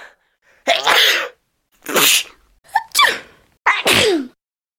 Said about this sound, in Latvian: Tā skan šķāvas. Visiem zināms, ka šķaudot mutei un degunam jāliek priekšā roka vai vēl labāk mutautiņš, īpaši, ja šķaudiens uznāk spējīgs un spēcīgs.